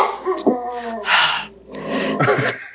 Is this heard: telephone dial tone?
no